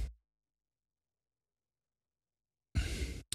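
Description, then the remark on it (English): After a long stretch of silence, a breathy, muffled exhale swells up briefly and cuts off, followed by a tiny extra puff of air, as a person holds in a yawn. “I was holding in a yawn, but thanks for bringing attention to it.”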